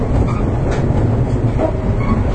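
Steady, loud rumble of a JR 415 series electric train in motion on the Nippō Line between Kokura and Nakatsu, a local train bound for Nakatsu, heard from inside. A continuous low drone and faint wheel rattle run throughout, with no voices.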